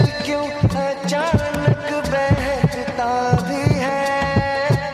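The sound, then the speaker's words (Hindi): Deep, steady heartbeat thumps pulse at a regular pace beneath a layer of sustained, melodic music tones in a film song scene. The thumping is prominent, and no one speaks. “फिर जमीन पे गिरता है फिर इसको अपने धड़कनों का एहसास होता है”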